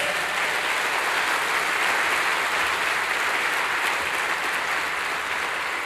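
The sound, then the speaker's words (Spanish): An audience breaks into sustained, steady applause for the Lord during a sermon, a dense wash of many hands clapping at an even, fairly loud level for about six seconds, with no voices standing out. “¿Por qué no le da un fuerte aplauso al Señor por eso?”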